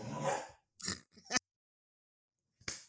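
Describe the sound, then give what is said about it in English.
Dogs bark and whimper in a few sharp bursts: a longer whiny cry, then two quick barks, a pause, and one more bark. No one speaks. “so yes, I was interrupted by the dogs, but we're back now.”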